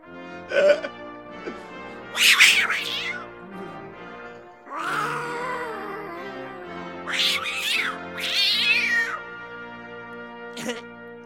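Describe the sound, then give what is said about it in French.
A cat meows repeatedly and loudly, a series of plaintive, drawn-out cries with rising and falling pitch, some short and some long and wavering. “Ah Les enfants, vous mettez pas le chat dans le feu, hein”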